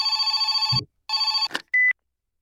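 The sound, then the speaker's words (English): A telephone rings on an outgoing call to a kennel, two sustained, buzzy electronic ring bursts separated by a short gap, then a clatter and a brief high beep as the line connects. Loud, no talking. “Still ringing.”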